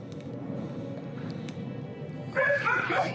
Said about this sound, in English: Dog is barking like crazy.